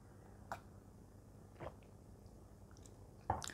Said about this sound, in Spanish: Ahora, lo último que quiero hablar, pero déjenme tomar un poquitito de agua.